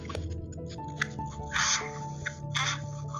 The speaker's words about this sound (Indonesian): nggak dengar dengar cuman agak kresek kresek gitu sih lagi deket kipas ya